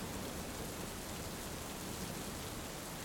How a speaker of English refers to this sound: your awareness towards the sound, sound of the rain. There might be a storm outside, but you are so safe inside.